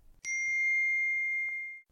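signal or alarm, phone notification ping

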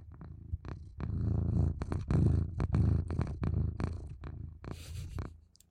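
animal, cat purring

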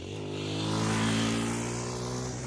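vehicle, motorcycle passing by

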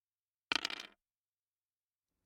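household object, dice being rolled

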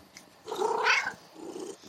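animal, domestic cat purring

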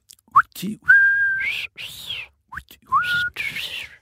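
human body sound, person whistling

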